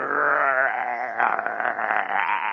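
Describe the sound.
A person vocally imitates an aggressive growl: one sustained, raspy, wavering snarl lasting a couple of seconds, with a trembling, almost bleat-like quality. It is loud, with no other talk.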